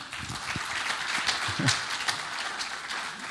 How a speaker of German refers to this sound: Großer Applaus für Jan. Dankeschön.